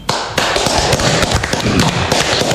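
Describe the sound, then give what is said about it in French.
A malfunctioning router cooling fan ticks and taps rapidly and irregularly, a loud rattle of sharp clicks over a steady whirring hum, with no voices. “Voilà, c'est le ventilateur du routeur qui déconne.”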